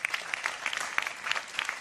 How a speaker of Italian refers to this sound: Eccolo qua, accolto anche da un applauso.